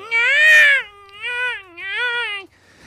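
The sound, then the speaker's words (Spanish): A newborn baby wails in three loud, drawn-out cries, the first the longest and most piercing, each rising and falling in pitch with short breaths between. No one speaks. “Que desde los días de nacido, cuando empiezas a, pegar tus berridos, tus gritos, tu llanto”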